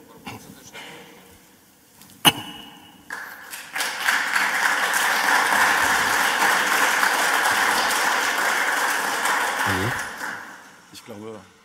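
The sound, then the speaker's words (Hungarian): Scattered, hesitant claps from an audience after a speech gradually swell into steady, moderately loud applause that holds for several seconds before tapering off, with a few voices near the end. “Tehát elmondta, letette a kis füles fordítót, és akkor így a, így a közönség szinte, szinte látod, hogy néznek, hogy szabad tapsolni.”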